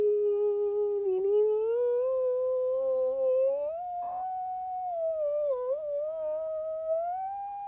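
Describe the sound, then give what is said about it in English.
A voice mimics a tiny, mournful violin, holding one long, thin, wavering note that slowly climbs in pitch, sustained alone for several seconds. “And like the teeniest, tiniest little violin, like, dee”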